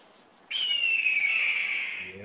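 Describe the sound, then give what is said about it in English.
A single loud, piercing red-tailed hawk scream bursts in suddenly and slides slowly downward in pitch for over a second and a half before fading, with a low murmur just at the end. “So this is what a red tail hawk sounds like in case everyone forgot the exact sound of it, which you already know, you hear it.”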